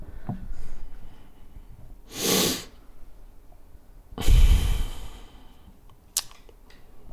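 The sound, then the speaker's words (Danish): A deep breath drawn in with eyes closed in front of a mirror, a short pause, then a long, heavier exhale, with no talking, followed by faint small clicks. “Vil du ikke starte med at øhm, lukke dine øjne, og så øh, kan du lige tage en dyb vejrtrækning, og så bare åbne dem, når du føler dig klar.”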